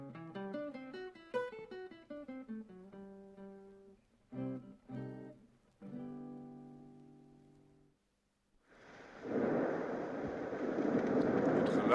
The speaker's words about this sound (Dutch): geluid van de donder.